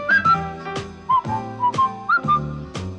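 whistling a tune

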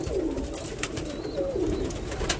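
pigeons cooing

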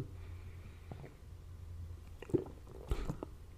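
sipping and swallowing beer

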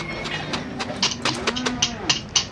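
cattle mooing

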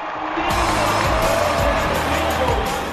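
stadium crowd cheering

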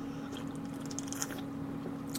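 sipping sparkling mineral water

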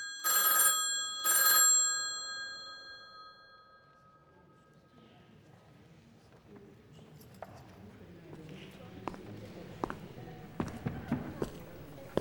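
telephone ringing

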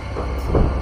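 thunder rumbling

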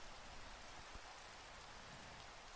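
rain falling

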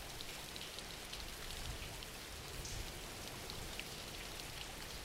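background rain

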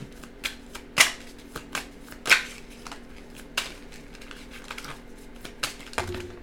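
shuffling tarot cards

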